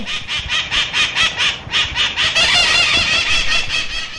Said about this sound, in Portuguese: que é o som do periquitão maracanã, e que muitos conhecem nessa região aqui como maritaca